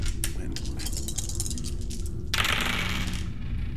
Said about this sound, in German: und jetzt müsst ihr nur noch den Würfelwurf schaffen, ob ihr auf die andere Seite kommt.